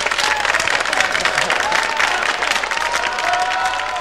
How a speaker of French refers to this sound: Si j'ai effectué le tour de l'orchestre, c'est parce que ce soir, c'est un peu la fête des musiciens, c'est la Sainte-Cécile. Alors je crois que on peut les applaudir très fort, ils sont rarement à l'honneur, mais ce soir, bonne fête messieurs